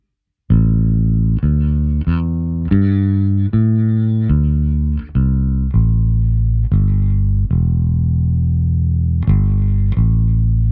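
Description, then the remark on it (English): A loud synthesizer with its release turned way up plays a melody of about a dozen notes, each tone ringing on with sustain and blending into the next with a long, smooth release, with no voices present. “you get a lot oh, of sustain by turning going. the release way up.”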